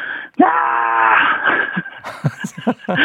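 person shouting loudly

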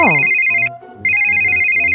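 mobile phone ringing loudly

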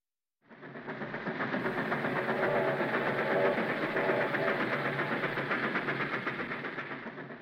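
moving train on rails

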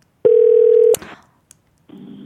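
telephone ringing tone

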